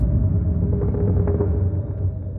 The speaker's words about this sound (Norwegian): Men plutselig så hører de en lyd i natten. Det er lyden av en båt, og den blir sterkere og sterkere.